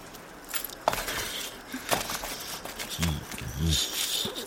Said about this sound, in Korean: 이윽고 마음을 정한 듯 사서가 자리에서 일어섰다. 사서는 주머니를 뒤져 열쇠를 꺼낸 후 내 발치에 툭 던졌다.